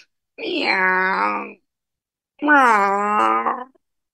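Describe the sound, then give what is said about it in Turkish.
A voice imitates the crying wail of Wilbur, a cat in a story, with rain dripping from his whiskers, in two drawn-out, whiny cries of about a second each, separated by a short pause. The voice is fairly loud, with nothing else around it. “diye ağlıyordu.”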